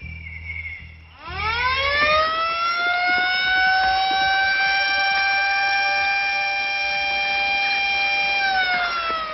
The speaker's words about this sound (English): Uh, stop them with your siren, man! Stop them with your siren!